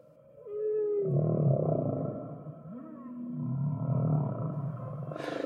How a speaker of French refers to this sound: Parmi les vocalisations plus élémentaires qui ont été identifiées chez les baleines à bosse